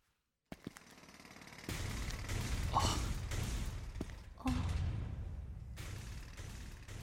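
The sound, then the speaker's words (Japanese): Demolition of an old apartment building: a sharp knock, then loud crashing and rumbling as heavy material breaks apart, with a second big collapse midway and grinding debris continuing to the end. “アパートは解体工事中だった僕たちは思い出が壊されていくのを呆然と見ていたアパートの解体に立ち会うことになるなんてね古いアパートだったから今まで残ってたのが奇跡だったのかもな”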